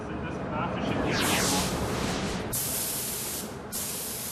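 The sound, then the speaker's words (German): A spray gun hisses steadily as it airbrushes paint onto glass, a broad continuous airy rush with brief pauses and restarts, fairly loud. “Der Umgang mit der Spritzpistole erfordert Fingerspitzengefühl und sehr viel Übung.”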